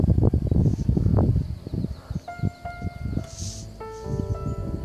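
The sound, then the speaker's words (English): Rain pattering steadily, a dense, uneven spatter of drops with soft heavier taps. Thin, faint tonal calls drift in midway through. “it started raining again.”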